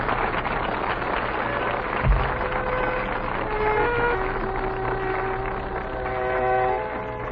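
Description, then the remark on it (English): A train rumbles steadily along the rails, continuous, with a sharp clunk partway through and thin, drawn-out metallic squealing tones rising over the roar later on. “And so, mamma mia, the trick is a fail, and I'm a got to Buffalo on an extra train.”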